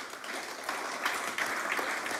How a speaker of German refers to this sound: Ein Applaus wäre jetzt angemessen.